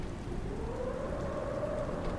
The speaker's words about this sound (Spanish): Era una noche con vientos fuertes y estaba comenzando a llover.